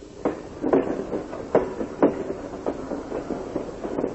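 A train clatters along the rails with repeated sharp metallic clacks in an uneven rhythm over a steady rumbling roar, moderately loud, with no voices.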